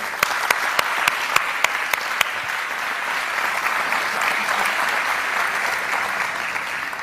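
Loud applause from a crowd clapping for the Lord, opening with a few sharp, distinct claps that quickly swell into a dense, steady wash of clapping that holds evenly to the end, with no voices over it.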